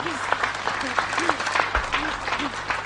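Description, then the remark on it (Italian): A studio audience claps steadily for a few seconds, a dense, even patter of many hands, with faint voices or murmurs mixed in underneath. “Aiutateci con gli applausi anche dallo studio, vi prego.”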